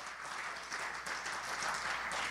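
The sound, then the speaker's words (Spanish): An audience breaks into sustained applause for the Lord, a dense, steady wash of many hands clapping at once, loud and even throughout with no voices standing out. “¿Por qué no le damos un fuerte aplauso al Señor?”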